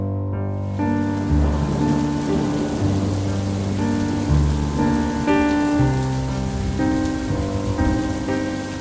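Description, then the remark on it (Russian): Rain falls steadily in Crimea in a continuous, even hiss, blended with sustained chords of soft background music that shift every second or two. No one speaks. “Люблю такой Крым. Пустой, дождливый, без летней осатанелости”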